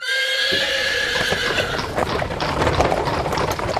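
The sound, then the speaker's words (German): A horse neighs loudly with a long, wavering whinny, followed by a steady rumble of hooves and rolling cart wheels, with no voices present. “In einer Zeit, als die Eisenbahn noch nicht gebaut war, war der Weg zur Leipziger Messe ein äußerst beschwerlicher mit Pferdefuhrwerken.”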